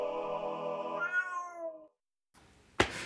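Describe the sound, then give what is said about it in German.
A person imitates a cat with one long, drawn-out meow that wavers and fades after about two seconds, followed by a brief pause and a short, sharp burst of noise. “Ich liebe diese Katze.”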